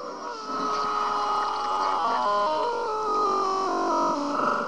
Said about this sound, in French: Allez, signal sonore.